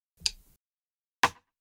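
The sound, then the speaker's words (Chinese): The two layered snare drum sounds that together make up a song's snare, played separately: each a short, sharp crack with a quick decay. The first carries a fuller low body, the second is brighter and snappier, with a pause of about a second between them. “那以下是这两种小鼓分开来的声音，”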